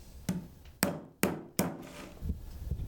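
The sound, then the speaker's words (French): A wooden beater, a basketry tool called a batte, strikes a woven willow basket to pack down the willow: a soft first knock, then three sharp, hollow thumps about half a second apart, with faint creaking and rustling of the wicker between blows. “Donc on tape sur les paniers pour, euh, tasser l'osier s'appelle une batte.”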